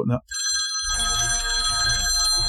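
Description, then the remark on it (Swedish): A telephone ringing tone, played as a sound effect when calling people, sounds steadily, bright and sustained with a buzzy electronic edge, preceded by a brief burst of noise and a short gap of silence. “Så, så vi får, vi har ju så här, när vi ringde folk förut så drog vi den här liksom.”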